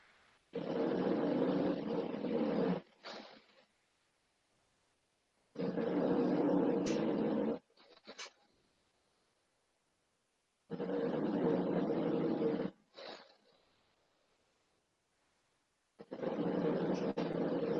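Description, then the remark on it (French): A dog lying at its owner's feet snores in slow, regular cycles: four long rasping inhales, each followed by a brief snuffling exhale, amid otherwise quiet surroundings. “Et là, avec ce silence religieux, on entend les ronflements de mon chien, non Ah, c'est bon, je me demandais ce qu'on entendait.”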